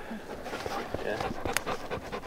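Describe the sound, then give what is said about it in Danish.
Hunting dogs out walking with hunters on a raised bog pant in quick, rhythmic breaths, an eager huffing that continues steadily throughout, with a faint human voice murmuring underneath. “Men, øh, men hundene vil gerne have, at vi var lidt hurtigere, kan I se.”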